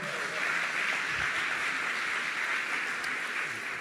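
Steady, dense applause from the assembled people fills the whole stretch after a name is announced, a continuous wash of many hands clapping at an even level with no voices standing out.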